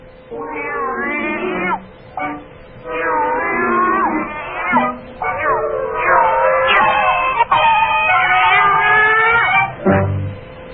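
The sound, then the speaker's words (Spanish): A cat in a studio meows and yowls loudly and insistently, drawn-out wavering cries repeating almost without pause for about ten seconds, with brief gaps between calls and no talking. “No se pueden traer gatos al estudio.”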